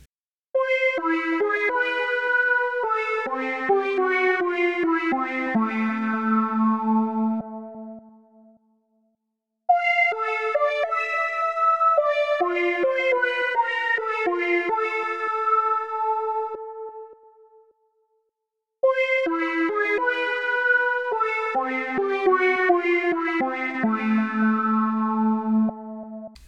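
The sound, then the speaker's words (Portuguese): A synthesizer keyboard plays a bright, harmonically rich melodic phrase that steps downward in pitch, repeated three times with short silences between, alone with no voices; the keyboard timbre used in a song. “Eu vou soltar aqui para você entender é, a força que o timbre do teclado é, da, podia dar à canção e por que, que eu usei esse timbre.”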